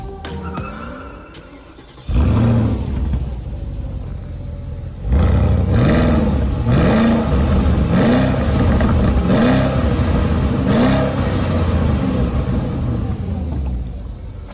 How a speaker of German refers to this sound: Soft Limiter. Ja, V8 hört man raus? Ja, hört man raus. Sportlich vom Sound auf jeden Fall, aber du hast es schon erwähnt. Ja, Soft Limiter. Soft Limiter.